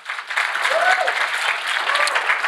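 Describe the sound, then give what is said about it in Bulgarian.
An audience applauds at a church service, a dense, steady wash of many hands clapping at once, with a few voices calling out faintly beneath it. “О, ако ръкопляскаш, ръкопляскай, като че си в църква пробуждане днес.”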